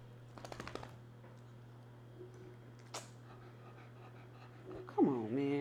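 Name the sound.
dog panting and whimpering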